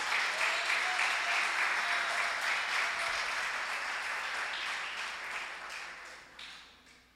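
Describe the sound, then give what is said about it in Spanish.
An audience applauds for the King, a dense wash of many hands clapping together that holds strong for several seconds and then gradually fades toward the end. “Denle un aplauso al rey.”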